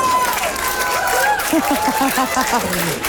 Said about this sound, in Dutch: Groot applaus.